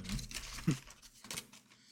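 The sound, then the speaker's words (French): Quiet cardboard rustling and scraping as a board game box is opened, with a soft thump partway through and a couple of brief crinkling bursts, with no voices. “tu ne sais pas ouvrir une boîte, c'est compliqué.”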